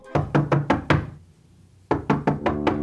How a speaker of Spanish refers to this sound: Eres una vez una niña, llamada Sofía, que estaba tomando el té con su mamá en la cocina, cuando de pronto llamaron a la puerta.